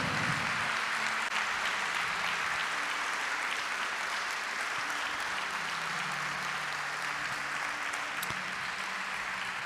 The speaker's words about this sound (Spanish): ¿Puede darle un aplauso al Señor en este culto? No ha dado un solo aplauso.